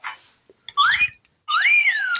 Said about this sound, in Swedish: Du märker ju den när eh, man eh, visslar. Det är en öppnare jag har faktiskt. Det är en, en, vis, en visselöppnare. Så fort man använder den och man tar den mot korken så låter det så.